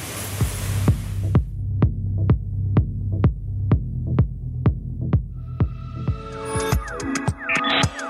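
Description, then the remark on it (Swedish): A steady industrial throbbing from ultrasonic welders, with a low hum pulsing in a regular beat about twice per second, joined later by clattering, whirring machinery noises. No one speaks. “Det är, jag tror det är de här ultrautsvetsarna som gör grund, grundtakten.”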